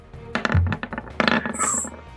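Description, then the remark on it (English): Dice clattering across a hard surface in two quick bursts of sharp, rattling clicks, fairly loud, with a brief high ring near the end and no talking. “16 on the dice.”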